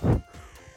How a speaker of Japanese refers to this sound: カラスがうるさいですね